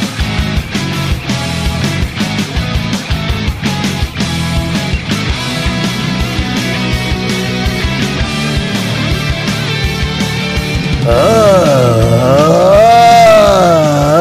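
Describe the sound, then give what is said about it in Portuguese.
Upbeat music plays for several seconds, then a loud, exaggerated moaning voice from a prank audio abruptly cuts in, wavering up and down in pitch for the last few seconds. “Pensei que já tinha ouvido o pior gemido do mundo, mas”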